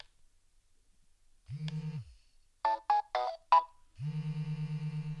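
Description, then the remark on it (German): A WeWalk smart cane powers on: a low buzzing vibration, then a quick four-note electronic chime, followed by a steady vibration hum that keeps going from its obstacle warning, which detects the person holding it in front. Clear, with no talking. “Okay, da war jetzt eine Vibration und ein Tusch und jetzt vibriert er immer noch.”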